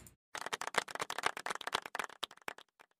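A clapping sound effect: a quick, uneven burst of sharp hand claps that carries on steadily for about three seconds and then trails off, with no voices over it.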